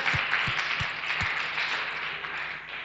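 An audience applauds in a dense, steady wash of clapping, with a few heavier low thumps in the first second before the sound gradually eases off.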